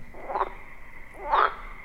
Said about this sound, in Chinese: 据说听到猫头鹰笑，表示有人会过世，而据说猫头鹰有提前预知死亡的能力，所以在欧洲国家又称猫头鹰是报丧鸟。